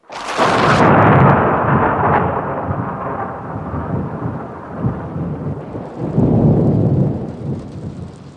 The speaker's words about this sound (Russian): Ночь, гроза.